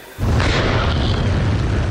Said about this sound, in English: This is what the blast looks like from the drone's camera. Pitch black, the strike fully automated.